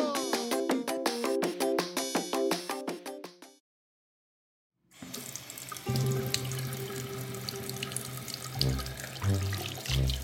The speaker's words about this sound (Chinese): 好舒服的感觉哦，风徐徐的吹来，淋浴的感觉也好清凉。